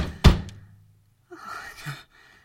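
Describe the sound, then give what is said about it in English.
A heavy knock thuds against a door, followed by a softer second tap, then a brief murmur of voices before the sound fades. “It's just somebody at the door.”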